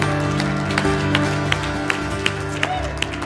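A church audience claps in a steady, even rhythm for a young man who has turned 25 and graduated, sharp claps falling roughly three times a second over a sustained, humming tonal background.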